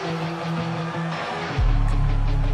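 Electronic music plays steadily with sustained tonal layers, then a heavy, booming bass drop kicks in just past halfway and fills out the low end, loud and close.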